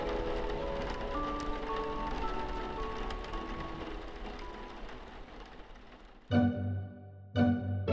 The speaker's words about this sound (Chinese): 雨点就滴滴答答的打落在地，轰隆隆的雷声也遮住了两位公主谈话的内容。